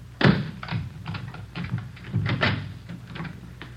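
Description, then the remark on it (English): A door being opened for police officers: a sharp clunk, then a quick run of small clicks, rattles and knocks as the latch and handle are worked, with no voices. “Let me get the door open.”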